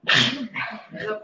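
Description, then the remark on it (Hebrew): A loud sneeze bursts out, followed quickly by two softer, breathy bursts in a short rapid series, with no talking over it. “בריאות.”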